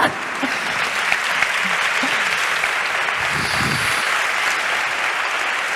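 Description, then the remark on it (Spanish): Sustained applause from a crowd fills the whole stretch, a dense, steady wash of clapping at even loudness with faint murmuring voices underneath. “Ponte ahí, ponte ahí, que te vean y te, aplaudan.”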